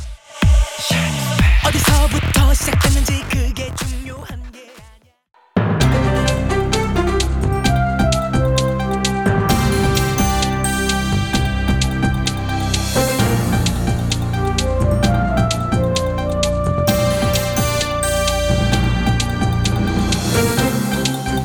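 A short burst of music fades into a brief pause, then an upbeat pop song starts loud and full, with a steady driving beat and layered melodic instruments playing continuously.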